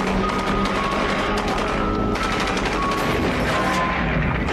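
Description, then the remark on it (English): Rapid, continuous gunfire from a gun in a video, with dense overlapping bursts and heavy low-end booms, loud and sustained for several seconds with no one talking. “Is it explosive rounds in that gun?”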